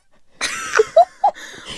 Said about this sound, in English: Just manipulating slime and making these satisfying squishy